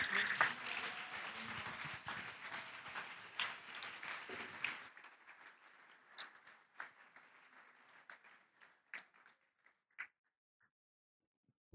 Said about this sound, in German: Und von daher vielen Dank, lasst uns den beiden einen fetten Applaus geben.